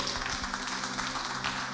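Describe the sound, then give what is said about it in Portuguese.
A church audience claps steadily for the band, a dense wash of overlapping handclaps that holds an even level throughout, with a faint low hum beneath. “Salva de palmas para ele, gente.”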